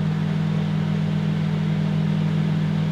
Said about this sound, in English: Are you, you know, microwaving your cats? that's that's the Thargoid sound effects for when they arrive. it sounds like a oh, it sounds like a vacuum cleaner. It is a microwave oven. It is a microwave oven.